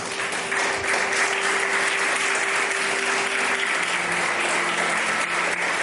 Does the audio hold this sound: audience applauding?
yes